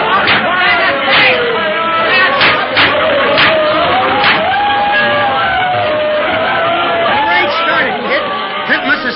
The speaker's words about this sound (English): It's tough to get through this crowd watching the fight. We had a hard enough time getting up on the dock. Now it's going to be even worse getting out to where the excitement is.